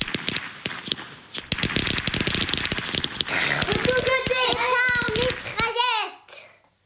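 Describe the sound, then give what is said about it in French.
A string of about ten small firecrackers linked by a single fuse crackles and pops in a fast, uneven burst, then a child's excited voice rises over the last scattered bangs before everything fades out. “Un assemblage d'une dizaine de pétards de taille modeste, mais qui étaient reliés entre eux par une mèche unique.”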